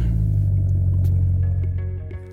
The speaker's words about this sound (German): Ich fahre nämlich gerade neben diesem Oldtimer, in dem wir hier sitzen,